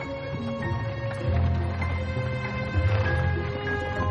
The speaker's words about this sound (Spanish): El coche de caballos circula por los campos.